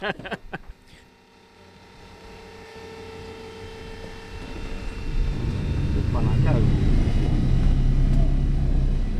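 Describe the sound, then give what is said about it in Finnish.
The piston engines of a DC-3 aircraft crank and catch as they start up, a deep rumbling drone swelling steadily louder until it settles into a loud, continuous roar, with a few sharp clicks and knocks at the start; the engines are then warmed up. “Moottorit oikein lähti käymään, kohta vasen, lämmitellään vähän aikaa moottoreita tässä ja sitten jatketaan.”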